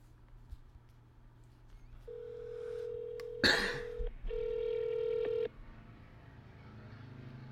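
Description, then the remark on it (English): A phone call to Best Pizza rings out with two steady electronic ringback tones, each lasting about a second or two, and a sharp cough breaks in during the first one. The background is quiet, with no talking. “Did mine ring? Yeah. I heard one ring out of it.”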